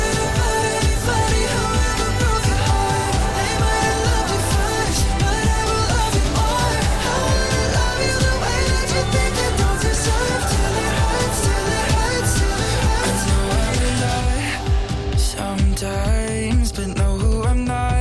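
A pop song plays loud throughout, with a steady driving beat, layered synths and bass, and a brief thinner break near the end before the full mix returns.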